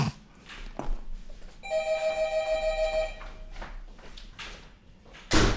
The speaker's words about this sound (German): Warte, Katja, ich mache auch kurz meine Klingel.